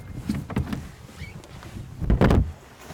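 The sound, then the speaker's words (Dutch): A boat engine is pull-started from cold with the throttle set fairly high: a few short rasping tugs on the starter cord, then one louder, harsher yank near the end, with no steady running engine afterward. “Zet hem eerst maar redelijk vol gas en doen wij weer de koude start.”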